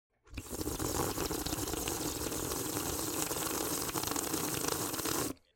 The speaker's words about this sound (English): Just add water and then he rips it. Oh hell he yeah! Fills it with water, and he's like.